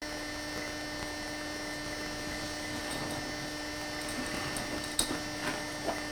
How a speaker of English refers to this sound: just so you can hear what it sounds like not the words per se, but it's just the funny like VHS camcorder, like the, the, the hum in the background, the the clinking of the camera, the zoom in. It's just so 2004, man. It's hilarious.